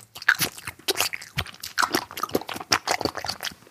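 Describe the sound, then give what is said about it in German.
Jean-Claude Van Damme bites into a crusty bread roll and chews, giving a steady run of dry, crackly crunches in an irregular rhythm, fairly loud and with no voices. “ja, nee, er hat einfach nur ein Brötchen gebissen und hatte keine Zähne mehr”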